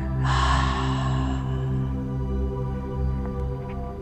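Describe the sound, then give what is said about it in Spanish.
A single breathy exhale through the mouth after a deep inhalation is held, during a guided breathing exercise: a strong rush of air that tapers off after about a second, over a steady low musical drone that continues afterward. “Retenemos el aire al final de la inhalación, retén, retén y exhalamos por la boca.”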